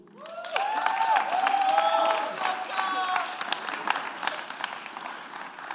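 A crowd applauds a man called to the front during a talk about the Bible, with steady, dense clapping, joined early on by rising whoops and cheers, the clapping thinning into scattered claps toward the end.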